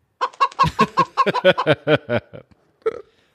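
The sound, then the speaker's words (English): A rapid run of chicken clucks, about a dozen short squawky bursts in quick succession, loud, ending with a final drawn-out cluck after a brief pause. “Hey, we should have a we should have a bird drop when I'm talking about the Seahawks and I pull out a chicken.”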